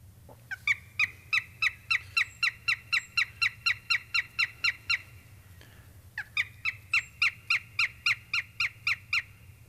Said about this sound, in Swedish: Hörni, vi ska, vi ska lyssna lite på duvhöken, hur den låter.